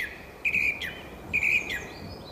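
A song thrush sings two clear, repeated whistled phrases, one after the other, ringing out over a faint background hiss with no voices.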